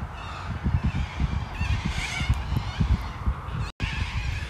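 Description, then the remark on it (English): Cockatoos screeching in a loud, continuous chorus of harsh, overlapping squawks, with repeated bursts coming close together and no one talking. “Cockatoos are like a goddamn car alarm.”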